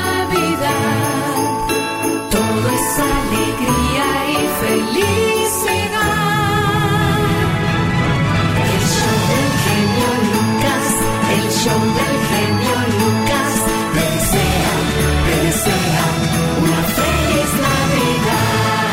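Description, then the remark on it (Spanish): Bright bells chime repeatedly over a loud, full musical backing that plays steadily throughout, with sparkling high strikes ringing out at irregular intervals and no voices. “Suenan campanadas de la”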